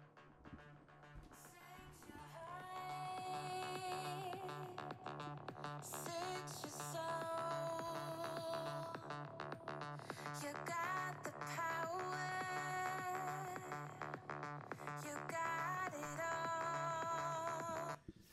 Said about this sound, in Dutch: Dan heb je een beetje een idee. Lekker een beetje electropop, binger, banger.